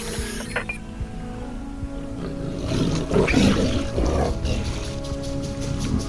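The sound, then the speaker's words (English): A large cat-like creature lets out a rough, rumbling roar that swells after a few seconds and stays loud, with a faint watery background and no talking. “But if you think I'm your next meal, you got another thing coming. Come on, you feline bastard.”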